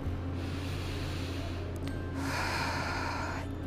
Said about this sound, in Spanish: Entonces, terminemos con esas respiraciones. Inhalamos por la nariz y lo sacamos por la boca.